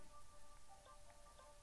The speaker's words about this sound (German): Ah, ich habe halt keinen Bock auf diesen Regen. Äh, wo regnet es denn am wenigsten?